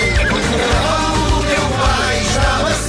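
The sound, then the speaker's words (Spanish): A horse whinnies in loud, wavering, drawn-out cries, set against a dense, steady backing with regular low thumps throughout. “Tentei muitas vezes, nunca consegui montar, porque o cavalo do teu pai estava sempre a relinchar.”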